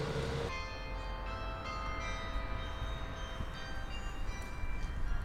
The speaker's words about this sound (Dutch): Ja, je hoort het hè, het geluid van de burcht. Het onmiskenbare klokkenspel van het voormalige gemeentehuis.